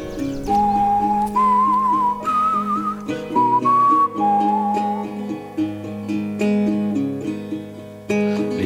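A clear whistled melody rides on top of a song, stepping through sustained notes in a tuneful line over steady instrumental backing, loud and close.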